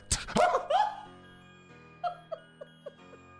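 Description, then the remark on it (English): A voice mimics a hard slap on someone's backside with a loud, sharp vocal burst, followed by a string of four or five quieter, shorter smacking pops that fade out. “She slapped you so hard she scared your ass.”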